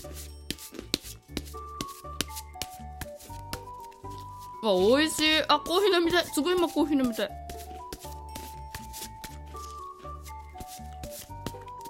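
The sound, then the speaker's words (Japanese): Tarot cards are shuffled for a one-card oracle reading in a steady run of quick, papery flicks and soft riffling taps; the first six cards are set aside and the seventh is drawn. A woman talks excitedly for a few seconds midway while the shuffling continues. “さあめくるよもう時間も時間でした最初の6枚をよけてワンオラクルはそうやってやるんですよ7枚目ペランお出ました”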